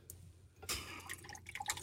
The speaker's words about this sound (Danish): Men øh, mens du hælder saft op